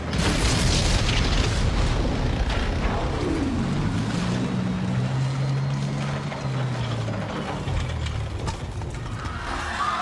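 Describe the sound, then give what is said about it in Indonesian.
A massive explosion boom from explosives planted at the base of the Hotel McDonald in Singapore, at about 3 a.m., rolls into a long, roaring rumble that stays loud throughout, with a low droning tone swelling beneath the noise midway. No one speaks. “Dalam keheningan kota Singapura, sekitar jam 3 dini hari, tersentaklah penduduk kota oleh ledakan dahsyat seperti gunung meletus.”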